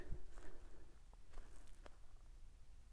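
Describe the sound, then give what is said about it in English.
Lake ice cracking in faint, scattered pops and sharp pings, several over a few seconds, against a near-silent backdrop with a soft low rumble. “except for those noises, which is the ice cracking, which is the weirdest fucking noise I've ever heard in my life.”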